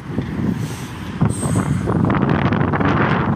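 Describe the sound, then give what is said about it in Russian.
Strong wind roars and buffets the microphone in a steady, loud low rumble with gusty surges throughout, and no voices are heard. “Ой, как ветер сильно дует у нас.”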